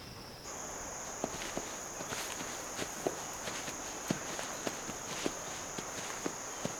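Unhurried footsteps and soft hoof clops crunch along a trail at an uneven walking pace, while a steady, high cricket-like insect drone hums throughout. No one speaks.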